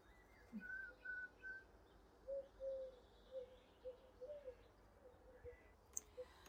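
Soft birdsong drifts in outdoors in the morning, a string of short whistled notes and chirps repeating over a steady, low background hum of open air.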